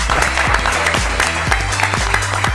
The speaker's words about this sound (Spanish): Déjenme, señores, un aplauso, por favor.